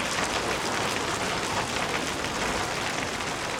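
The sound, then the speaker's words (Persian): Heavy, big raindrops fall steadily and densely, a continuous hiss and patter that holds at an even, fairly loud level throughout, with no voices. “همون روز که با دیدن قطره های درشت بارون هر دو با یلدا گرم پوشیدن و برای بازی بیرون رفتن.”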